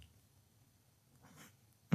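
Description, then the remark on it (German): A voice imitates a dog's low, throaty grumble, one short soft rumble over a faint low hum, followed by an abrupt louder burst right at the end. “Manchmal maunzt der Hund, oder raunt. Ich weiß nicht, wie man das bei Hunden nennt. Brummen.”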